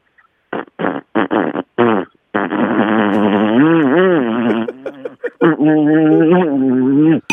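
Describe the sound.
A voice imitates a small low-cc scooter engine, not an electric one: a few short sputtering bursts like a kick-start, then a long buzzing drone that revs up and down in pitch, ending in choppy putters and a steady hum.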